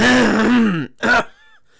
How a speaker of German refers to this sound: Sorry. Kurz kleine Räusperung.